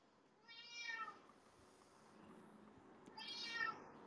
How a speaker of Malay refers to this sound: ni, ni nak sahut setan lah ni, kucing ni. Eh, hey, kau malam-malam kau nak sambut siapa?